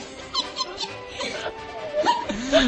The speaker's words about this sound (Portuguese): Opa, alguém tá soluçando?